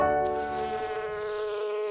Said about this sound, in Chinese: 诶，很好猜哦，这就是蜜蜂嗡嗡嗡的声音。乖乖，蜜蜂是属于社会性的昆虫，嗯，这么说好了，就是跟我们人一样，是一群一群人这样子生活在一起。